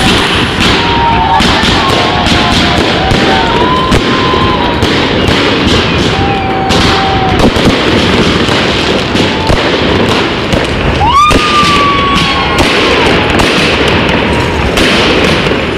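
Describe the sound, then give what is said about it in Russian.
A loud, continuous fireworks salute: dense volleys of booming bursts and crackling pops, with several whistling rockets rising through the barrage. “И это ли не основание для салюта вслух?”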